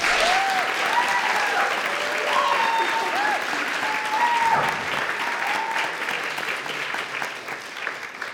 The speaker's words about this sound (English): If your hands aren't tired, please clap for our guests again.